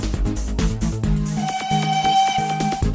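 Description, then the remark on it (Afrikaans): A toy train whistle sounds a steady, shrill tone that holds for over a second, over a rhythmic chugging beat of low thumps that runs throughout. “Is dit dalk die tini trein wat ek daar gewaar?”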